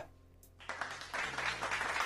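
A burst of audience applause starts abruptly after a quiet moment and builds into dense, steady clapping from many hands, staying loud through to the end.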